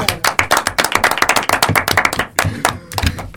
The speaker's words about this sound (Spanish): Yo el, único, voy el único integrante. ¡Basta de el único integrante del coro que se comprometió. Y ¿eh? cumplió, ¿viste? Y cumplió. Así que el aplauso para